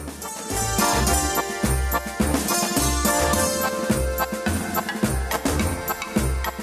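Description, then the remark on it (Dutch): The original music of a theme park ride plays loudly and continuously, with a steady pulsing bass beat under bright, layered melodic instruments and no one talking. “Dus, uh, niet, ja, de originele muziek eh, die klinkt zo.”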